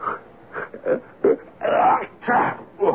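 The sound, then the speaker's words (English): Someone who has caught a cold sneezes in Rome: a run of short, breathy vocal gasps builds into a louder, drawn-out burst, followed by another strong sneeze and a final smaller one. “Gesundheit.”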